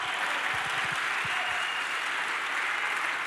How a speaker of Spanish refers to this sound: Eso te tiene que alegrar. Aplauda al Señor por eso.